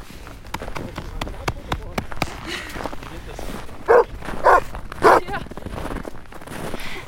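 A dog barks three times in short, loud bursts spaced about half a second apart, close by, over a backdrop of rustling movement and faint scattered clicks.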